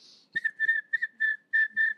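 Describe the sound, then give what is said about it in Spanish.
A person imitates crickets chirping, a trick taught by Jordi Ríos, with a high, thin whistled trill, repeated in about six short bursts with brief gaps between them. The sound is clear and isolated, with no talking. “o sea, de esto que soy en los grillos que me enseñó a hacer”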